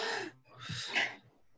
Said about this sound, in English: So yeah, my, my, my, eyes just fly open and I gasp, just like.